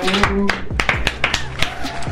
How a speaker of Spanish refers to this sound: Sí, al final se fue un aplauso para el amor. Pido un aplauso para el amor.